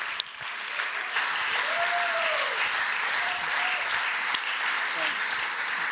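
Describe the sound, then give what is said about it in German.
Sustained audience applause welcoming a guest onto the stage, a dense steady wash of clapping that holds evenly for several seconds, with a faint whistle or cheer rising briefly above it. “Gebt doch einmal einen riesen Applaus.”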